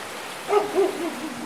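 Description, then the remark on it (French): A neighbour's dog, a few metres away, gives three short, tonal barks in quick succession, fairly soft, over a steady outdoor background hiss with no one talking. “Voilà, puis à quelques mètres de nous, il y a un chien, le chien du voisin, qui nous accueille.”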